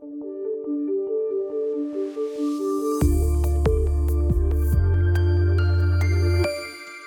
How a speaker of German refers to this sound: was war denn das gerade für ein Jingle? Naja, der bedeutet jetzt ganz einfach, dass das Intro vorbei ist